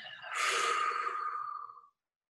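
A single deep, airy breath, close and fairly loud, swelling quickly and then fading out over about a second and a half, like a long sigh, with silence after it.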